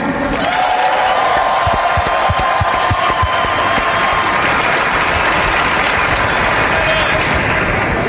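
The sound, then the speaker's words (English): Loud, sustained crowd applause with cheering in Phoenix as James Jones is introduced, dense continuous clapping with a few whoops rising over the steady roar. “Give a round of applause to Mr. James Jones.”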